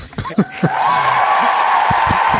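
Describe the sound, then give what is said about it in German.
A few short vocal sounds, then a played-in applause sound effect: a steady wash of crowd applause and cheering rises and holds at a fairly loud, even level until the end. “Dann spiele ich mir erstmal Applaus ein, ehrlich gesagt.”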